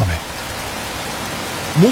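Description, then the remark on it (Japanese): Heavy rain pours down in a steady, dense hiss that fills the whole clip, with short bits of a voice breaking through at the very start and again near the end. “晴れのち雨雨のち大雨大雨のちもっと大雨”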